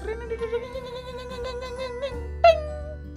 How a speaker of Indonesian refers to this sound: tiba-tiba bel masuk berbunyi dengan keras